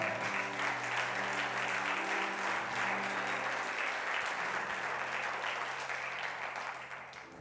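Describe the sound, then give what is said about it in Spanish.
Steady applause from an audience applauding the living word, dense and sustained for several seconds, with a low humming tone held underneath before the clapping gradually thins toward the end. “Dale un aplauso a la palabra viva.”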